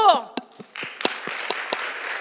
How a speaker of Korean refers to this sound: 하나님 박수! 하나님 대단하십니다. 대단하십니다.